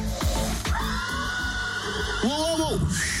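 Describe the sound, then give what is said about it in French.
A horse, presented as Pégase, a winged horse, whinnies: a long, high, drawn-out cry that breaks into shorter wavering calls, heard over a busy background. “Je vous présente Pégase, un cheval ailé indomptable.”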